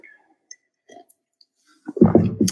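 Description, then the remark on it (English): Faint, sparse mouth sounds and small clicks from someone sipping coffee, followed by a louder gulp-like swallow and breathy exhale at the end. “Let me take a sip of my coffee.”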